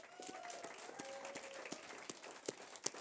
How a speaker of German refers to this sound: Lass uns Jesus einen Applaus geben heute Morgen.